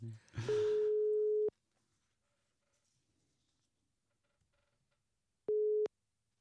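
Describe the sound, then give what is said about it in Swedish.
A steady telephone ringback tone of an outgoing call sounds for about a second, then after a long silent pause a second identical ring follows, clear, with brief background noise at the start. “Nej, men jag ringer honom.”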